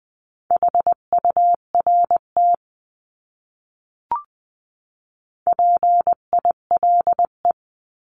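Morse code for a single word sent at 18-20 words per minute as a clean, steady beeping tone in quick dots and dashes, two short bursts of code separated by a pause with a faint click, no voices.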